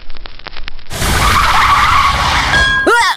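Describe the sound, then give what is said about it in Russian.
A car brakes hard with a long, loud tire screech lasting a few seconds, preceded by a short burst of engine rumble and ending in a final squeal, with no talking. “Ой, ну, ну кто так тормозит?”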